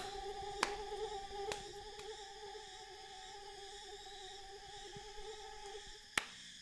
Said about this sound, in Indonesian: Hingga kami tak sadar, nyamuk dari hutan bakau mulai menyergap dan menyerang kami seperti perang Vietnam.